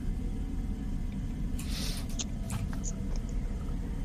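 Soft, crinkly rustling of paper in a few brief bursts, fairly faint, over a steady low background hum with no one talking, as a man gets his pen out to write an answer.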